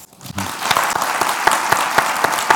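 An audience breaks into applause to welcome Gonzalo Suárez after a brief quiet moment, a dense, steady wash of many hands clapping with a few sharper individual claps standing out on a regular beat.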